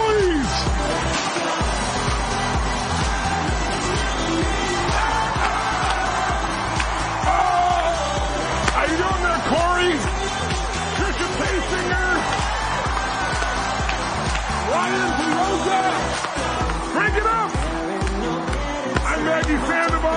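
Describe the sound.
An audience cheers and shouts steadily for about twenty seconds as Tony Robbins is brought on, a loud, dense roar of voices blended with pounding music played by a DJ underneath and occasional whoops rising above the din.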